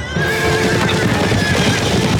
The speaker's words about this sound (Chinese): 正高高兴兴往前走的以色列人，突然听到远远传来一阵阵马匹奔跑的声音。回头一看，天哪，是埃及的追兵正在追赶他们。